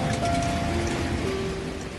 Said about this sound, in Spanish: Me estoy mojando porque está lloviendo.